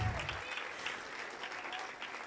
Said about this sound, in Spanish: Denle un aplauso, ellos merecen honor.